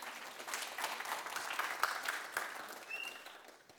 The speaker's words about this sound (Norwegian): Ja, nå kan jeg klappe for disse her superskuespillerne.